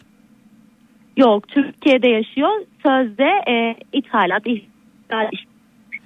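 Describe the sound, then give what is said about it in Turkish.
A man's voice over a phone line sounds thin and band-limited, breaking up in choppy bursts with abrupt gaps of dead air between fragments as the call audio cuts in and out. “Efendim Bana sesiniz kesiliyor.”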